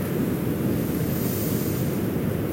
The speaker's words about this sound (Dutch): Adem in. De golf komt op